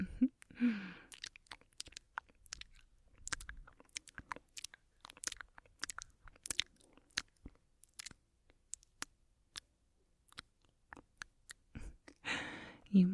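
Wet, clicking mouth sounds recorded very close to the microphone, an irregular stream of sharp smacks and pops with soft breaths at the start and end, no talking.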